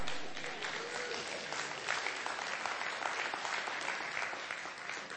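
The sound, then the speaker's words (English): Steady applause from a church audience marking the inauguration of a new president, many hands clapping in a dense, continuous patter that holds at an even level for several seconds with no voices standing out. “Oh, come on. You can clap.”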